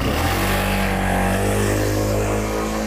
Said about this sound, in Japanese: ちょうどね、今バイクが通ったんで、ちょっとこうガサガサってなったと思いますが。